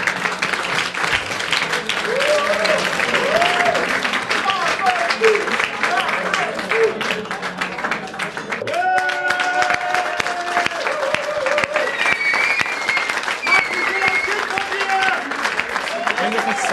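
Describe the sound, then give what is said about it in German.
Loud, sustained applause from a large live-show audience for two people, dense clapping filling the whole stretch, with cheers and scattered voices rising above it and a brief dip midway before it swells again. “Aber zunächst bitte ich erstmal schon mal für einen tosenden Applaus für die beiden und wir sehen uns in einer Viertelstunde.”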